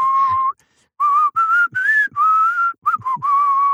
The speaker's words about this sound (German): flöt mal. Denn dieses Lied mal. endet ja am Ende. So ungefähr äh, äh eine Minute äh, wird ja dort äh, gepfiffen.